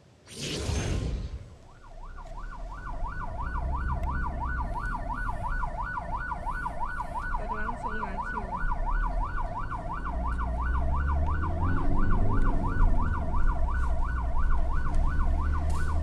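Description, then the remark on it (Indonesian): A loud ambulance siren warbles rapidly and continuously over low engine and traffic rumble, growing slightly stronger toward the end as vehicles pass by; President Jokowi's Paspampres escort convoy pauses to let the ambulance pass, in Kerobogan, Central Java, Indonesia. “Beginilah situasi di mana rombongan Pas Pampres yang mengawal Presiden Jokowi berhenti sejenak untuk memberi kesempatan mobil ambulans melintas.”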